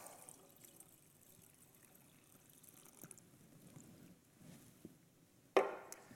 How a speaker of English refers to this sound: And yes, there is a such thing as too much for the funnel. I could have poured faster and overflowed the funnel and made a big mess,